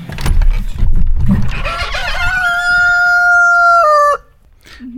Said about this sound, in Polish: pieje cały czas kogut, alarmuje.